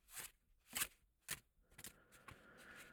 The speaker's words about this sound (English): I'm going to shuffle the cards now to make sure we have a completely unique deck of cards